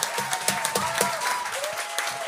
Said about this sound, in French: C'est ma technique d'écriture, mais bravo, super belle prestance. Applaudissez